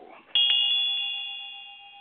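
A single bright bell is struck once, ringing out with a clear metallic tone that lingers and slowly fades, close and fairly loud after a brief murmur of background voice.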